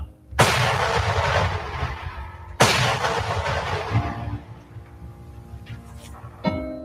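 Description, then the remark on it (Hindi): Two heavy Mughal cannon blasts at the Battle of Khanwa in 1527 boom a couple of seconds apart, each trailing off in a long rumbling echo, followed by a smaller, sharper shot near the end. “खानवा में सांगा व बाबर की सेनाओं के बीच तुमुल युद्ध हुआ मुगलों की तोपों से सहसरों हिंदू योद्धा मारे गए”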